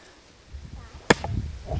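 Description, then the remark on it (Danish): Boys splitting damp firewood with an axe: a single sharp crack as the axe strikes and splits a log, followed by low thuds and rustling as the pieces settle. No one speaks. “som drengene er gået i gang med at, at flække op til noget brænde”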